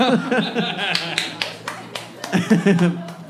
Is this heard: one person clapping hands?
yes